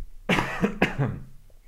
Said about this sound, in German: Ähm, jetzt muss ich mal kurz abhusten, das tut mir leid. Nee, huste mal ab, bitte.